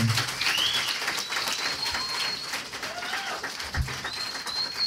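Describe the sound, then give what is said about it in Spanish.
A live audience in Monterrey cheers and applauds in a dense, steady wash of noise, while several shrill, sliding whistles ring out over it, some short and some held. “Me veo bien hermoso, ya sé, gracias por chiflarme.”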